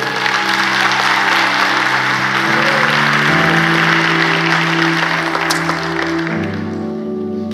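An audience at Osana church claps steadily for several seconds for one of the church's leaders, a dense, sustained wash of applause with low sustained tones beneath it, fading slightly toward the end.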